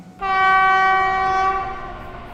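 A train horn sounds one long, loud, steady blast with a rich buzzing tone, held for about two seconds over the low rumble of a moving train. No one speaks.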